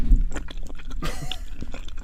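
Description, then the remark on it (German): Wet smacking and chewing sounds made by a female assistant, a quick irregular run of mouth clicks and smacks with no talking over them. “Hier haben wir nochmal die sexy Schmatzgeräusche von meiner süßesten Assistentin.”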